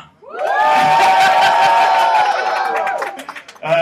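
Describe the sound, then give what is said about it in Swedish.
A loud burst of crowd cheering and applause, with high whoops over a wash of clapping, lasting about three seconds before tapering off as a voice cuts in. “Lite applåder tack!”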